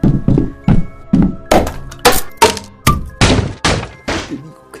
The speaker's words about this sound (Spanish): Ahora los policías se dieron la vuelta y van a romper la puerta. ¿Estás escuchando? Están tratando de derribarla.